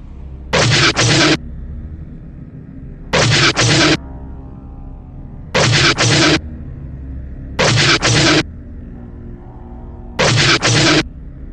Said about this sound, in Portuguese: Ele tá em cima dos droids, os droids usam isso ao seu favor e o tiro de canhoneira explode novamente no peito do Sed, causando mais um crítico e tomando 11 de dano.